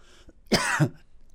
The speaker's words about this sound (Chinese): 哎呀，老师咳嗽，哎，话讲太多的咳嗽。还是说老师不能把这个秘密告诉你们咳嗽啊啊！